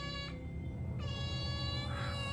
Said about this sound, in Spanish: Cuando subimos, oímos leves maullidos.